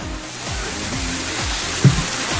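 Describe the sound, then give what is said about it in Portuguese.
Champagne pours and fizzes with a steady, hissing wash of tiny bubbles, fairly loud, with a brief brighter clink or splash near the end. “As transfiníssimas bebendo champanhe.”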